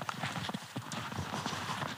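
Footsteps creak and crunch through snow as people walk off outdoors at a steady walking pace, roughly four crisp steps per second, fairly loud and without any talking over them.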